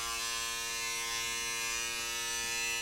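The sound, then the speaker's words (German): A steady, droning insect buzz of a hornet beating its wings holds fairly loud for about three seconds with a rich, raspy harmonic tone and no talking. “Mit den Flügeln Musik machen, das kann ich auch.”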